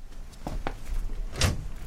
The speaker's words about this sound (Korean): 아, 예, 열리네. 헐. 문을 열고 들어간 승아는 깜짝 놀랐다.